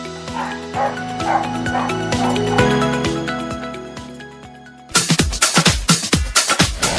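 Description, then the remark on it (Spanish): In a radio advertisement for a dog grooming salon and pet shop in Miramar, a dog whines and yips over a bright musical jingle, then a rapid burst of about eight loud barks follows in quick succession. “Nueva sucursal de Claudia Jacob, estilista canina, diagonal Fortunato de la Plaza 1575 Miramar, donde tus perros siempre van a regresar felices.”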